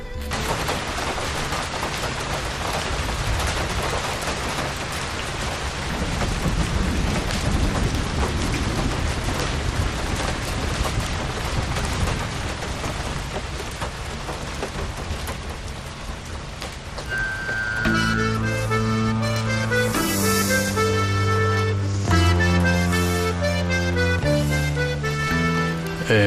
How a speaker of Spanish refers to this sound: está lloviendo